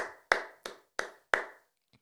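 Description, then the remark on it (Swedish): A brief round of applause made of four loud, sharp hand claps at an even, unhurried pace, each with a short ringing tail, followed by a faint tick and silence; no one speaks. “Du får andra applåden för avsnittet.”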